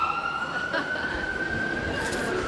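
A fire truck siren wails steadily and fairly loud, a sustained tone that creeps slightly upward in pitch over a low rumble of traffic, with no voices.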